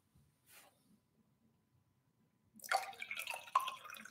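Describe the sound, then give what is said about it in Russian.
A brief soft rustle, a quiet pause, then a person pours water to drink in a steady, splashy stream for over a second, with no one speaking. “Воды попью.”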